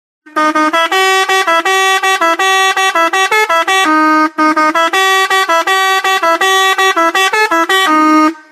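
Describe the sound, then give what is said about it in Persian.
A rubber-bulb hand horn is honked loudly over and over by a cheerful, colourfully dressed man with a balloon-laden cart, its reedy, buzzy blasts jumping between a few pitches almost like a tune, with only a brief pause midway and no talking. “گاهی هم وقوق صاحبی را به دست می گیرد و به صدا در میآورد.”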